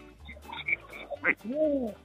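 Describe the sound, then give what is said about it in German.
A pet animal makes a short, raspy, speech-like vocal sound: a quick squawk, then a rising-and-falling utterance that sounds like the German words "schmeckt gut" ("tastes good"). It is moderately loud, with no one talking over it. “Oh, er hat was gesagt. Habt ihr das gehört?”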